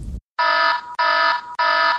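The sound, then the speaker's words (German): A loud, harsh electronic red alert alarm blares in three repeated bursts, each about half a second long with brief gaps, a rich buzzing tone with no voices. “Alarmstufe Rot. Dieser Podcast hat seine genehmigte Länge überschritten.”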